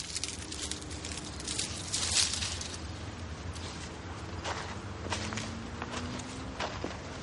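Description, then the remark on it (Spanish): Footsteps of a woman walking among lemon trees crunch and shuffle over dry leaves and ground litter at a slow, uneven pace, with a few sharper snaps and rustles of foliage and no talking. “Camina entre los árboles.”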